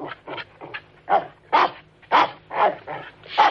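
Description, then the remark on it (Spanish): A small dog yaps in a quick, uneven run of about eight or nine sharp, high barks, some slightly whiny, with no one talking over it. “Los niños miran alternativamente a ella y al perrito, asombrados de que se entiendan.”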